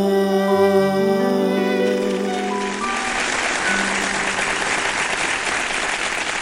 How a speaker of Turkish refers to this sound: Duymayı çok özledik değil mi? Alkışları çok, böyle. Çok bayıldım ya şu an. Bir daha basar mısın?